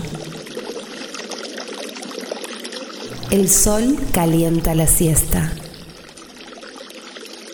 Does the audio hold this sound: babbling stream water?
yes